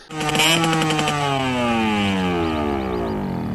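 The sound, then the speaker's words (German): A loud engine roars steadily through a dual-pipe exhaust, its harmonics sliding downward as the revs ease off, with a raspy, buzzing exhaust tone throughout. No one speaks. “Wir haben jetzt so einen Doppelrohrauspuff zur Auswahl gehabt.”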